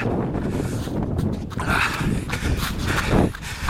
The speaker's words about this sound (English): This is one of those runs where I'm out here It ain't easy. Back in slush. Wind is howling.